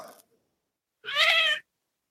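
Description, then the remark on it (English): A single drawn-out cat meow, clear, lasting about half a second with a rising, wavering tone, preceded by a faint brief sound and followed by silence. “that wasn't Bridget, that was a cat.”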